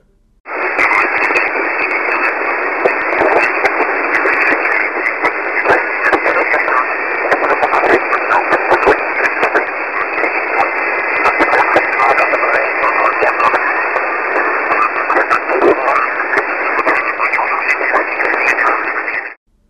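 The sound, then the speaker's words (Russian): Steady, loud radio static fills the whole stretch, a band-limited hiss with crackling bursts and a faint whine above it, like a receiver tuned between stations. Murmuring voice-like fragments seem buried in the noise. “Местами шумы и эфирные помехи действительно напоминают шепот, но это всего лишь иллюзия.”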